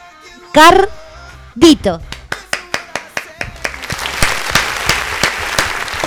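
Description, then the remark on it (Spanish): Two short whooping cries ring out, then steady rhythmic clapping begins and swells into a dense burst of crowd applause that carries loudly to the end. “¡Aplaudan vos!”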